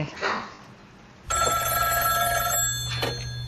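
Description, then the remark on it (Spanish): A brief voice, then a loud, steady telephone ring bursts in and sounds continuously, with a low hum beneath it: a phone ringing inside a played song in which two young people talk on the phone. “pues ves en esta canción en donde hablan por teléfono”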